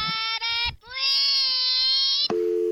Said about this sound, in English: Oh, no, oh, my phone's gone. I'm sorry about this again. Look, just, I'm just gonna let it ring.